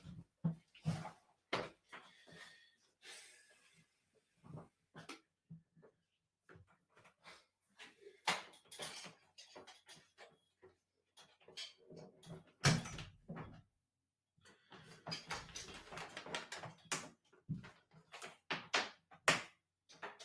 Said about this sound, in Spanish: A ver, un, un, segundo que tengo a la perra por aquí detrás haciendo no sé qué está haciendo. ¿Qué haces, Nana?